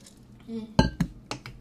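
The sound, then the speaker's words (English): A coffee cup clinks as someone drinks coffee, three quick ceramic knocks in a loose rhythm with a brief ringing tone, preceded by a faint, low murmur. “That is the sound of me enjoying my coffee.”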